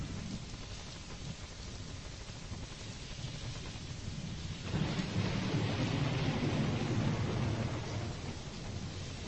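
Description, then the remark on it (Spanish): Steady rain hisses throughout, and about halfway through a deep roll of thunder swells in and rumbles on beneath the downpour. No one speaks. “Parece que llueve, ¿eh?”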